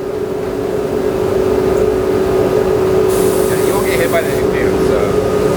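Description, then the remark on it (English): A steady, loud exhaust-fan drone with a low hum fills a spray booth, then a spray gun's bright, airy hiss bursts on partway through and sprays continuously for about a second and a half as a worker without a respirator sprays a shaded sunburst finish around the perimeter of a Gibson guitar. “Yeah, you, you, can see with the draft in the spray booth, he doesn't have to wear a respirator, and it's perfectly safe.”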